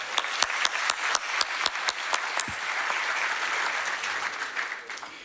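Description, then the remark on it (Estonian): An audience at an event breaks into loud applause for the organizers, starting with a few sharp, evenly spaced claps that quickly swell into a dense, steady wash of clapping lasting several seconds. “tere kõigile ja, ja teeks ühe kõva aplausi Eh, korraldajatele minu meelest üliäge, ülisuper ilm ja, ja väga hea event, aitäh.”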